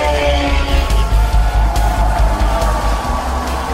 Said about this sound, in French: J'espère que vous m'entendez bien, il y a énormément de bruit ici sur le circuit. Les moteurs qui hurlent dans la ligne droite, des puits devant moi et aussi la foule qui est debout, qui hurle, qui encourage son pilote